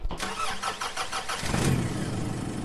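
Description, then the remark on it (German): A car engine cranks with a rapid series of starter whirs, then catches and settles into a steady, fairly loud rumbling idle. “Ich, ähm, also so spontan kriege ich das nicht gebacken ohne Auto. Und ja, jetzt packe ich schnell meine Sachen und flitze.”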